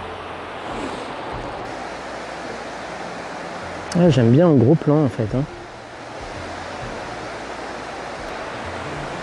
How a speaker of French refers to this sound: Voilà, bah, ma foi, je pense que c'est pas mal pour la cascade.